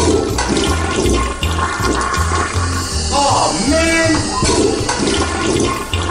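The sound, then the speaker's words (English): A toilet is flushed twice, loud, with a steady rushing, gurgling swirl of water that fills the whole clip, while a voice briefly exclaims over it. “A Double Flush production.”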